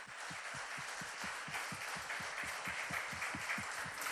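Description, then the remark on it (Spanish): An audience applauds steadily, a dense wash of clapping carried by a regular, quick beat as many hands fall into rhythm together, holding at an even level throughout with no voices. “Y eso merece un aplauso de todos nosotros, hermanos.”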